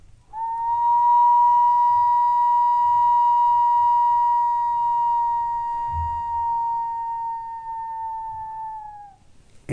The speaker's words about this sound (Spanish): con unas cañas que se agrupan, se tejen, que es una antara de cañas.